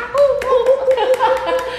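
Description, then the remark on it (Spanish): Sharp, evenly spaced claps of monkeys applauding, about seven in under two seconds, ring out over a sustained, wavering tonal hoot, moderately loud. “Qué preciosura, aplausos de monos.”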